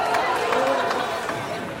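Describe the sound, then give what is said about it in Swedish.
A crowd of people running across: a dense, steady patter of many hurried footsteps, some walking and some running, mixed with an indistinct murmur of voices, holding at an even, fairly loud level throughout. “Ja, nu springer alla, alla människor över.”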